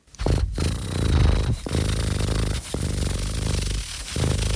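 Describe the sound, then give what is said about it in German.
Someone imitates a cat snoring with loud, raspy, rattling breaths, about four long drawn-out snores separated by brief pauses, with no other sound around them. “Auch die Katze. Können Katzen schnarchen? Ich mach's vor.”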